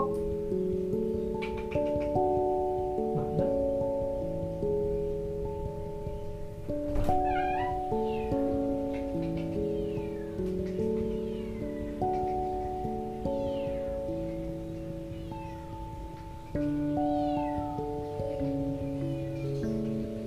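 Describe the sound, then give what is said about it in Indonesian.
A cat meows a few times, short rising-and-falling calls that sit over steady background music with sustained chords; no one speaks. “tadi ada kucing ya bentar ya saya lihat dulu neko neko neko”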